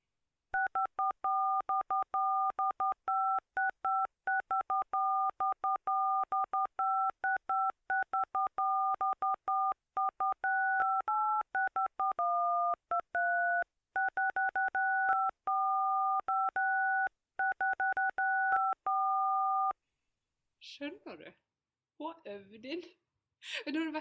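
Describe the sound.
A rapid run of mobile phone keypad tones, short two-pitch beeps pressed in quick succession to play a recognizable song melody for about twenty seconds, followed by a few moments of talking.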